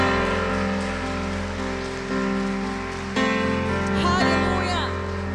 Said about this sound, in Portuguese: Aplauda ao Senhor, irmãos.